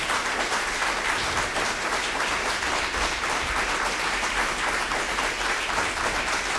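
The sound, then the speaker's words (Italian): Steady, dense applause from an audience, requested for Simone Ivaldi at the close of a music lecture; a continuous crackling wash of many hands clapping at even loudness throughout, with no voices over it. “Saluto e ringrazio Simone Ivaldi, un applauso per favore.”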